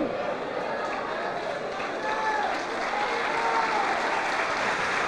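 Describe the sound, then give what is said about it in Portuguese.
A large audience claps steadily for the whole stretch, dense and even, with faint voices and cheers rising through the applause. “Vamos dar a melhor salva de palmas para tudo, para tudo, para esta palavra, para este amor, por este sacrifício.”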